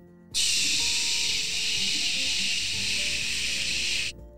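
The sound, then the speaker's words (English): A loud, steady burst of static hiss from a newly assembled walkie-talkie switches on abruptly as it is turned on, holds evenly for about four seconds, then cuts off sharply, with no voices. “As she turned it on, it made a nice, fuzzy sound.”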